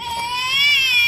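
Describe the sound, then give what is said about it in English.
A baby's cry sound effect made by students: one sustained, loud wail that holds a bright, steady pitch and swells slightly louder toward the end, with no talking around it. “Baby cry.”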